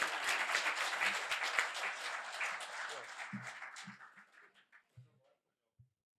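Audience applause: a dense wash of many hands clapping that gradually thins out, ending in a few scattered claps and some low murmuring before falling silent.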